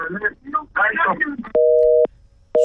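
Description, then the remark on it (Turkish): Brief talk gives way to a steady electronic phone busy tone after a caller hangs up during a radio call-in: two flat beeps with a gap between them, loud, the second cut short at the end. “Suratıma kapattı bak.”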